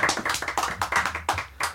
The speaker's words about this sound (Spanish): a ver, público! ¡Un aplauso! Eso.